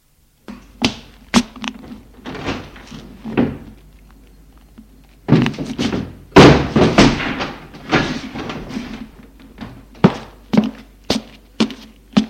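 vehicle, car door slamming shut

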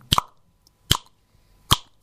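human body sound, finger snap

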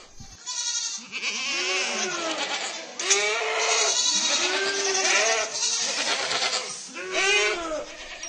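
animal, goats bleating

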